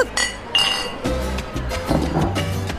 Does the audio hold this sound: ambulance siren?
no